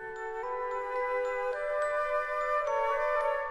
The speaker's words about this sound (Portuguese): Recentemente, no dia 2 de cada mês, os sinos da Torre dos Clérigos começavam a tocar à meia-noite, sem ninguém lhes mexer. E ainda por cima, a um ritmo inesperado. Primeiro, sete badaladas. A seguir, pausa. E depois, mais seis badaladas.